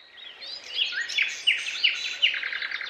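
bird, birds chirping and calling

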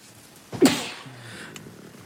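human body sound, sneeze

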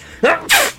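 human body sound, sneeze

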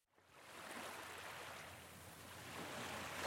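nature, sea waves washing ashore

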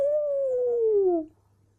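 bird, rooster crowing

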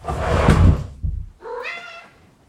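animal, cat meowing

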